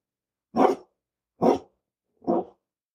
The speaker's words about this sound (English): And our dog is barking right now. Hopefully we can cut this out.